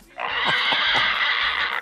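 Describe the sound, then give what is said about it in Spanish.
A person imitates a pig grunting, making one loud, raspy, snorting noise that holds steady for under two seconds, with a few throaty pulses inside it. “¡Haz como puerco! ¡Haz como puerco!”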